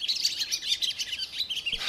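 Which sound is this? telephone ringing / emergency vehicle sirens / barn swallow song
barn swallow song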